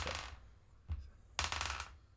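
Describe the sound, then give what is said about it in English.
Six-sided dice are rolled twice, clattering across a hard surface in a few quick bursts: a rattle, a brief knock, then another longer tumbling rattle. The sound is quiet, with no talking. “Now you um roll your dice. You roll twice.”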